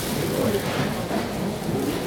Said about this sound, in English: Those are particularly noisy bags.